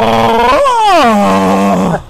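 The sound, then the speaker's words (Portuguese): A voice imitates a moaning dial-up fax modem as a computer-style moan: one loud, drawn-out whining groan that lifts briefly, then slides steadily downward in pitch over about two seconds, with no other sounds. “Um é. fax modem gemendo, não. Compila um gemido aí.”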